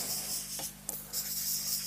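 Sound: pen scribbling on paper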